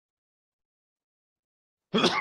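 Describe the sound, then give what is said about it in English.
After a long stretch of silence, a single sharp, loud sneeze bursts out near the end, abrupt, with no talking around it. “Bless you.”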